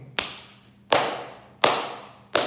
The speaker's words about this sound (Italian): Altro applauso spontaneo